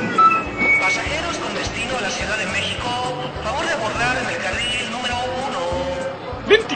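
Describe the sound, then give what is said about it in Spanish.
A bustling crowd fills a large bus terminal with overlapping chatter, while a low engine rumble from about four idling buses runs steadily underneath and an occasional beep cuts through. “¡Ay, pinche central! ¡Está re grandota! Mira, hay como cuatro camiones.”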